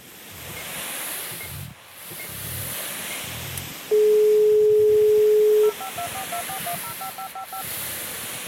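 Fax machine tones: a loud, steady electronic beep held for about two seconds, then a quick run of short, higher-pitched bleeps, all over a constant noisy hiss and low rumbling.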